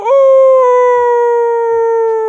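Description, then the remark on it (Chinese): A voice imitates a rooster's crow with one long, loud, drawn-out call, holding a steady high pitch for about two seconds before trailing off slightly. “一只很同情它的小公鸡伸长了脖子，啼了两三声，呜呜”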